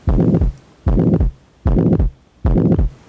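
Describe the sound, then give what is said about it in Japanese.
A pansystolic heart murmur, its loudness unchanged through systole, of the kind heard with ventricular septal defect or mitral valve insufficiency: four evenly spaced whooshing bursts, each holding steady loudness from start to end, separated by short quiet gaps. Clear, with no talking. “これに対して雑音の大きさが収縮期で変わらない雑音これを反収縮期雑音というふうに呼びますこれは心室中隔欠損あるいは防湿弁の閉鎖不全で聞こえる雑音です”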